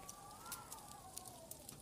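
Soft, irregular pops and crackles of a fireplace snap quietly over a low, steady background, with a faint whistling of blowing winter wind drifting slowly downward.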